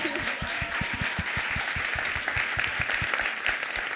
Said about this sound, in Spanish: Che, ¿por qué no, no, damos un, un aplauso a todos los que vinieron?